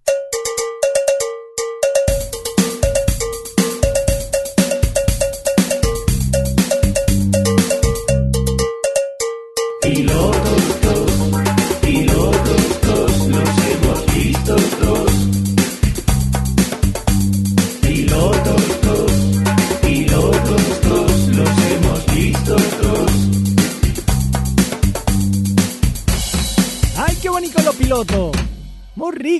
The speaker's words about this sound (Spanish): Déjame poner el indicativo, vamos para allá.